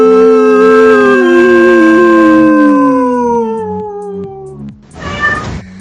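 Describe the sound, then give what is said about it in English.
Several voices imitate a long, loud group howl, the pitch sliding slowly downward for about five seconds before trailing off into a brief burst of noisy laughter. “Can you howl with me? I, I, we will. Bring it three, two, one.”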